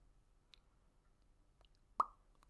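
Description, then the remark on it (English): A few sparse keyboard taps at a slow, uneven pace as someone types to look up an inflation calculation, mostly soft, with one sharper, louder keystroke near the end, over quiet background hum. “I was just like slow sure typing.”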